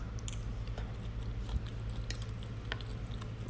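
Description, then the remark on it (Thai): Chewing on a tortilla at nine in the morning in Doha, with soft crunches and wet mouth sounds repeating irregularly over a steady low electrical hum. No one speaks. “ขออภัยตอนนี้กิน ตอเตลินี่ เป็นเวลาเก้าโมงเช้าของที่โดฮาเนาะ ก็เลยมีความหิว โอเค จะหยุดกินละตั้งใจพูด เพราะมันเสียมารยาทอ่า”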